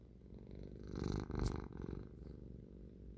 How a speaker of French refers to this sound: Alors, j'ai Grisou à côté de moi qui ronronne.